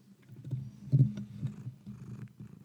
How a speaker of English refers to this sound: Hi, Miss Tallulah. Can you hear her purring?